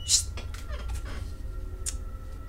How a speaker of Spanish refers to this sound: La muerte está aquí. Ah, no, es el gato. ¡Salí de acá!